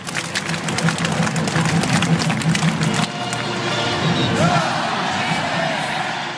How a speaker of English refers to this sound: you've ever been to a University of Florida Gators football game, you've probably heard some of these cheers.